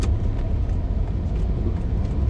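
A steady low engine rumble fills the cabin of a moving car, a constant droning hum with faint road noise and no voices.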